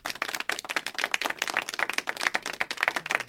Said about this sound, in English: I kind of have to wait for the clapping now. It just feels it's right.